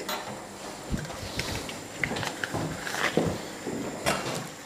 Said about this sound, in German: So, dann nehmen wir uns einen, einen Spätzlehobel.